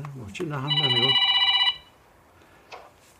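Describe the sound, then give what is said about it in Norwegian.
A telephone rings in a home living room where journalists are gathered, a bright, steady electronic tone lasting about a second, overlapping a voice talking; then it goes quiet apart from a brief faint noise. “Telefonene ringer ofte. Særlig er det én telefon som nesten ustanselig lager lyd”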